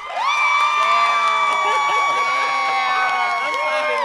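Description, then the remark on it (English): A crowd cheers and whoops loudly for about four seconds, many high-pitched voices overlapping in a steady, sustained roar with a scattering of claps underneath. “I mean, an audience clap.”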